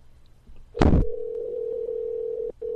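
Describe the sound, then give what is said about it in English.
A sharp click, then a steady, moderately loud electronic ringing tone on a phone line as a call to a man is tried again; it hums on, drops out briefly, and resumes while the call waits for him to pick up. No one speaks. “Let's try this again. See if he picks up.”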